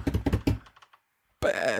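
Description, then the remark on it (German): A quick run of hollow taps on a desk, tapped as a drum roll before a prize draw, fading out over under a second; after a short silence a voice begins speaking. “Ah, du machst einen Trommelwirbel, Achtung.”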